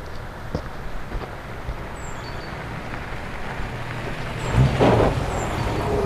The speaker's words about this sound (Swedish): Men vad i hela friden? En bil.